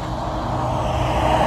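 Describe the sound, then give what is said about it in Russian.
Loud, steady roar of fast road traffic, with trucks and other vehicles rushing past on a busy highway while a hitchhiker waits by the road, and a deep engine rumble underneath; no voices. “Но, честно говоря, пока это выглядит маловероятным, потому что они все очень быстро тут едут.”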